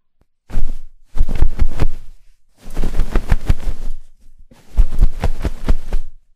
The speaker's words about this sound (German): Neben der Matratze habe ich mir noch zwei Emma Flauschkissen geholt und bevor ich jetzt viel erzähle, hört einfach mal rein.